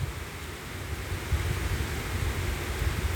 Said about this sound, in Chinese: 我们只听雨声，闭上眼睛。